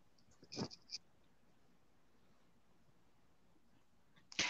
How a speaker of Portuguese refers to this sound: Tem um gato aqui nos visitando.